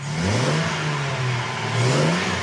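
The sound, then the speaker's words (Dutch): The engine of a Mercedes 300 SL race car, number 417, sportscar class winner of the 1955 Mille Miglia, revs loudly and continuously, its deep droning pitch climbing, dipping and surging again, with no voices over it. “Dus, dit is de 300 SL, het geluid van 300 SL die daar staat.”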